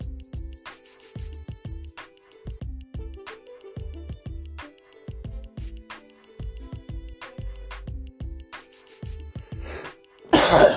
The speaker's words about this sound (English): excuse me, you know, like I told you, I'm still under the weather. I don't want to be coughing on here and all that.